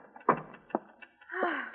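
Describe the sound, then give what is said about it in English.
A door opens in the big, untidy photographer's room of the Morning Express: two sharp knocks of the latch and handle, followed by a brief creaking, rising swing. It is fairly quiet, with no talking over it. “The door opens, and Ann Williams.”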